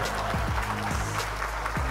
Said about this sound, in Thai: และขอเสียงปรบมือดังๆให้กับอพิโซดนี้ด้วยครับผม